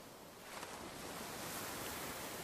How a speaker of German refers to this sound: und die Augen geschlossen hast, dann kannst du ja jetzt auch schon ganz langsam das Meeresrauschen hören.